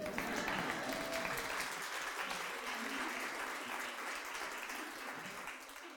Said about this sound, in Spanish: La mamá es la mamá. Aplaudan pues mamás.